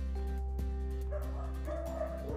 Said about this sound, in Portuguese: E esses cachorros não param de latir, eles querem também participar dessa, desse podcast.